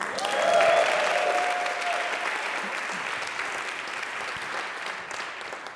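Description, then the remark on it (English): A crowd applauds the preachers steadily, the clapping loudest in the first second or two and then easing off slightly while continuing, with a few faint cheers mixed in early on. “Let's hear it again for the preachers.”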